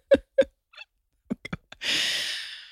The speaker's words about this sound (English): He's snoring. Excuse, it's no snoring. It's a nap. It's a middle day. I know, nap. but he's snoring and people can hear it. It's, it's unprofessional.